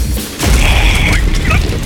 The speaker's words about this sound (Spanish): Y caigo. La cabeza golpea mal.